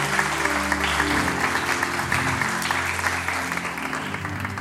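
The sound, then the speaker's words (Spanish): Sustained audience applause, a dense, steady wash of many hands clapping at an even loudness for several seconds, with low tonal sounds running underneath. “Denle un aplauso a estos hermanos amados que están acá.”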